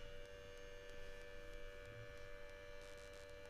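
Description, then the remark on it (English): A steady, eerie siren drone from a spooky online horror video holds one unwavering pitch for the whole stretch, with a low hum beneath and faint periodic clicks. No one speaks. “I think it's just the image with like siren noise.”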